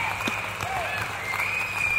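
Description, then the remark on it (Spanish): A crowd in a broadcast studio applauds to welcome a guest to the program, with a steady, dense patter of many hands, holding an even level throughout with a faint high whistle-like tone running underneath. “Creo que hay aplausos también para ti.”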